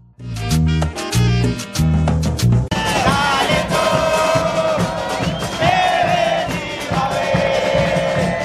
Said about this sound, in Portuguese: Vamos ouvir mais uma canção, a canção 4 deste O Som das Torcidas, a torcida do Tolima cantando que vai na derrota ou na vitória apoiar o Tolima.